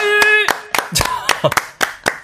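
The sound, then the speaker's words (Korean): Scattered audience clapping, about a dozen sharp, loud claps in an uneven rhythm, mixed with a sustained tone and brief voices talking. “박수가 콸콸콸!”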